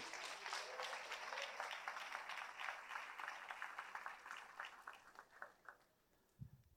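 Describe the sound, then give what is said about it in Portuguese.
An audience, asked to stand, applauds the Lord with dense, steady clapping that gradually thins into scattered individual claps before fading out, and a brief low voice is heard at the very end. “Pode aplaudir o Senhor.”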